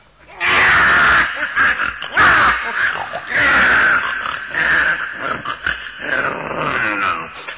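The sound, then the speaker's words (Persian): A wolf growls and roars loudly, snarling in long rough bursts that run almost without pause for several seconds, with brief dips between the fierce outbursts. “گرگ جنس قافل که نبود هرگز عاقل هی خورد و خورد تا باد کرد سرشو برداشت فریاد کرد”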